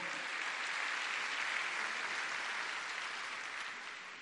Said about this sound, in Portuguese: Glória a Deus. Pode aplaudir o Senhor.